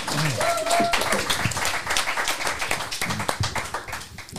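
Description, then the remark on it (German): An audience bursts into steady, dense applause as a person is called to the front, many hands clapping in a fast crackling rhythm that holds for several seconds, with a few voices calling out near the start. “Ja, ein Applaus hier.”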